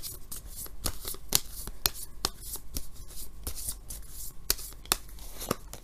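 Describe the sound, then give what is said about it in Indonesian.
Tarot cards being shuffled for a Capricorn love reading, a steady run of crisp papery riffles and soft slaps with sharp clicks scattered throughout, moderately quiet and without any talking. “kartu yang keluar adalah The Star.”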